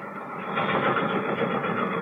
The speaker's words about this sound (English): The outskirts of a small town, somewhere in the Middle West. In the blue light of early morning, a freight train lumbers slowly toward the tiny station.